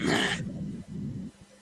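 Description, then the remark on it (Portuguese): A single sharp, breathy sneeze bursts out, followed by a brief low, rough exhale that trails off into quiet. “Foi um espirro, foi um espirro.”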